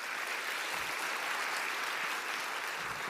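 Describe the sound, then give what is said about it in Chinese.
An audience gives applause to the Lord, clapping steadily for about three seconds, a dense, even wash of many hands with no pauses and no voices over it. “再给主一个掌声，好不好？”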